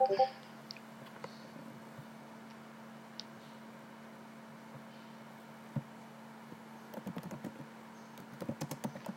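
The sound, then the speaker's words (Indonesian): Scattered keyboard keystrokes tapping over a steady electrical hum, sparse at first, then a quicker cluster of typing near the end. Fairly quiet, with no one speaking. “saya ketik mungkin”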